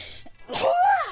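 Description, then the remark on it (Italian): A single loud sneeze: a sharp breathy burst followed by a brief voiced, falling tail, with no talking around it. “Salute. Sono allergica alle informazioni non interessanti, scusami.”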